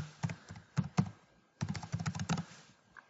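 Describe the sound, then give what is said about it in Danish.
Crisp keystrokes on a computer keyboard as the name of a new resource is typed into a booking system: a few scattered taps, a short pause, then a quicker burst of typing before trailing off. No voices. “Så skriver jeg ladcykel 1, og den er der et stykke af.”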